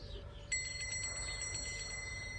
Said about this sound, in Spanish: Entonces, vamos a hacer la misma prueba con las campanillas.